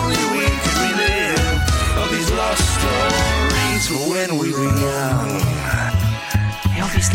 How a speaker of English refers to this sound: hear the music.